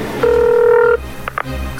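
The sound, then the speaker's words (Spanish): A single steady electronic telephone tone from an incoming phone call sounds for under a second, loud, followed by a couple of brief soft clicks against a low background hum. “marcándome otra vez. Tengo que cambiar de número de teléfono ya.”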